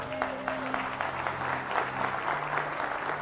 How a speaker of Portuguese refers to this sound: Você pode dar um aplauso a ele?